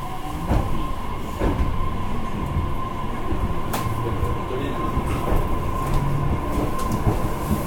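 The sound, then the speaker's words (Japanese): Inside a JR Kyushu BEC819 series battery electric train on the move from Wakamatsu to Orio: a steady rumble with a constant electric whine and periodic clacks from the wheels passing rail joints, and no one speaking. “JR BEC819系 若松から折尾まで”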